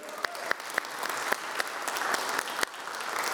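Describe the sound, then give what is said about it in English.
A crowd claps steadily for the Life Essentials Compassionate Ministry team, with sharp individual hand claps popping out over a dense, continuous wash of applause that stays fairly even and moderately loud throughout. “Can we, hear it for them?”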